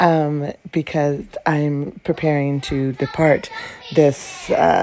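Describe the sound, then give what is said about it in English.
A woman talks steadily at home while her young grandchildren chatter and whine underneath, with a brief high-pitched squeal near the end. “And uh, you may hear my grandchildren in the background because this woman has been at home packing, packing, packing”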